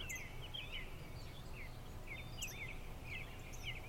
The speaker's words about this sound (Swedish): Vad hör du? Hör du vinden? Fåglarna som kvittrar?